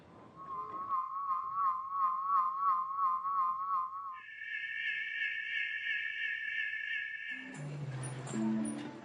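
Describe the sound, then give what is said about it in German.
Steady whistling tones from pigeon flutes as a flock flies off: a wavering mid-pitched whistle, then a higher sustained chord, followed by a burst of mixed tones and flapping noise at the end. “Soundcheck vom Abflug.”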